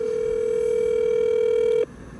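A telephone ringback tone on a third call attempt to the personal phone of minister Karen Abudinem sounds as one steady, fairly loud electronic hum, holding for nearly two seconds before cutting off abruptly into quiet line hiss, with no one speaking.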